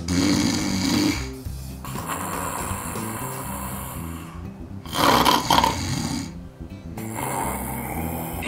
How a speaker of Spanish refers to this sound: O hasta los que roncan como lobo viejo.